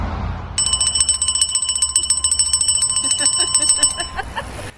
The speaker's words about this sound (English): bit of a, a, bell ring there from Mark as well, just to round things out